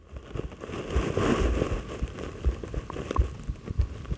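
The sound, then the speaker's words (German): Muffled, low heartbeat thumps recur at a slow, steady pace, dull, picked up by a contact microphone pressed against a person's bare chest, under a constant rustling, crackling noise of the microphone against skin and shirt fabric. No one speaks. “So, ähm, ich öffne jetzt hier mal mein Hemd ja. und drück das Mikrofon daran.”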